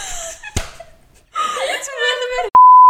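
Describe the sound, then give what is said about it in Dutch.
Voices chatter and whimper expressively, broken by a sharp smack, then a loud, steady electronic censor beep cuts in abruptly over a spoken name and holds a single pure tone to the end. “Ik piep al die namen er wel uit trouwens.”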